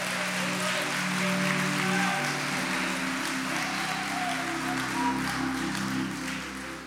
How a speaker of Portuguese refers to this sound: Se você acredita assim pela palavra, aplaude a Ele o mais forte que você puder.